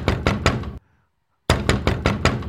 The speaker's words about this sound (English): Do you need me to knock on the door for you?